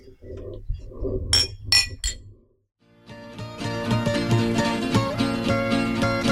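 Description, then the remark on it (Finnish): A few bright, ringing glass clinks of a toast to the island of Vartiosaari, loud against a low murmur, then a short silence before music begins playing. “haluaisin ehdottaa, että nostettaisiin mallia tälle hienolle saarelle.”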